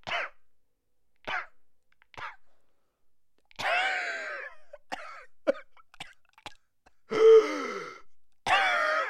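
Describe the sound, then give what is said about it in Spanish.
A person fakes a string of coughs, imitating a former president coughing into his elbow: a few short sharp hacks followed by longer, raspier bursts with brief gaps between them, fairly loud. “porque yo lo vi cuando se puso su manita ahí, su codo en, en, en la boca y empezó a toser.”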